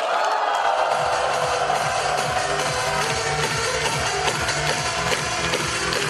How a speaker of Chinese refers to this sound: 愿意有这样人生效应的，请把双手举起来加欢呼。